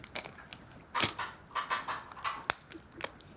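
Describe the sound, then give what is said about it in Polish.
A brittle lump of resin, used as a lacquer ingredient, being split apart, with a run of dry crackles and crunches and one sharp, loud snap near the end. No one speaks. “To jest żywica. Mm. I do czego ona? To jest do, do składnik lakieru. Jak się przełupie,”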